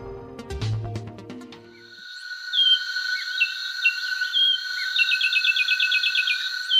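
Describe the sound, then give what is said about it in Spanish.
A cone-billed finch, a 16-centimetre bird with a grey head and a cone-shaped bill, sings high, thin notes and a quick rapid trill over a steady buzzing insect-like hum, clear, following a brief burst of other sound at the start. “Así canta el pinzón con el rostro, un pájaro de 16 centímetros de altura que tiene la cabeza gris con dos estrías negras en la coronilla y una lista ocular negra que se prolonga hasta la nuca.”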